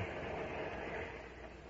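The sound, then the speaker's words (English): A steady, continuous rumble of a train bound for New York moving on the rails, even and unbroken throughout with no voices, heard as though from inside the carriage. “I wish this train would move a little faster.”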